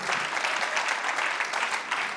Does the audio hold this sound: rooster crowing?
no